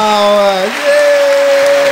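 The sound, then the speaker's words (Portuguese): A canned applause sound effect, a steady wash of clapping lasting about two seconds, with a sustained tonal hum over it that shifts pitch briefly partway through. “Sentei o dedo no mundo das palmas.”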